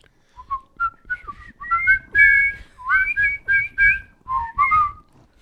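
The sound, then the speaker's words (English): A person whistles a bouncy melody, a run of clear, sliding notes in short phrases with brief breaths between them, heard alone without any talking. “Maybe you should whistle the newsaroos.”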